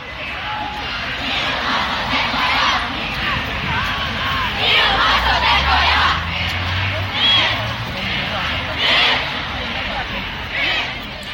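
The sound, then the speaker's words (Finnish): A large crowd of young voices at a youth-organized climate strike chants and shouts demands for climate action now in rising, rhythmic bursts, loud and continuous, with a low rumble of traffic underneath. “Vaadimme ilmastotekoja nyt, kaikui monessa nuorten järjestämässä ilmastolakkotapahtumassa.”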